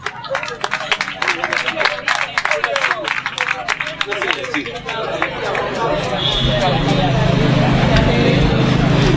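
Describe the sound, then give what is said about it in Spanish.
An audience applauds with dense, steady clapping for about five seconds, then the clapping thins into a loud, continuous crowd murmur and hubbub. “Un aplauso para esta gente, por favor.”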